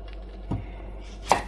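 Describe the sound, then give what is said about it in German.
Two sharp knife chops on a cutting board as a medium-sized onion is chopped into small cubes, spaced almost a second apart, the second a bit louder and crisper, with no talking. “ich habe jetzt hier so eine mittelgroße Zwiebel. Die tun wir jetzt mal eben hacken.”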